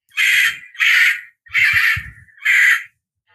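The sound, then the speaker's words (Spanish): A kakapo parrot gives four loud, harsh squawking calls in a steady rhythm, each about half a second long, with a low rumbling grunt beneath the third call and no voices present. “Es el sonido que hace un cacapo.”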